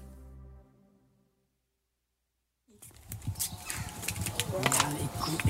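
After a low hum fades into a few seconds of silence, a busy chicken coop rises up: overlapping clucks and chatter with scratchy rustling, growing steadily louder.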